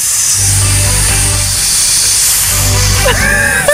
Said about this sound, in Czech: To je had, ne? To je had? Dobře. Had, jo. To je had, ty no, Dobrý, jo.